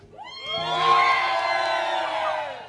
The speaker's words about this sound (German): Jetzt sind es doch zwei Jubelelemente gewesen.